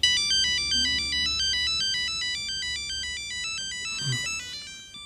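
A bright, electronic phone ringtone plays a bouncing melody of quick alternating notes, steady and fairly loud throughout, with a brief low rustle near the end and no one speaking.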